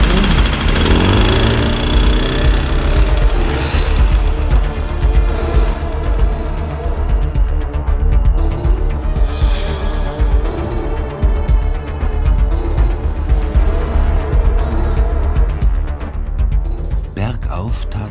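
A motorcycle carrying two riders revs up and then roars steadily as it rides off, loud throughout, with a rough, rattling throb that continues for the whole stretch.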